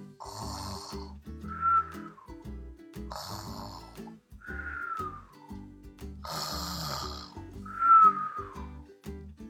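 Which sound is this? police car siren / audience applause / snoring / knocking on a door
snoring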